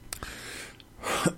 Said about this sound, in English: Did not want to cough in y'all face.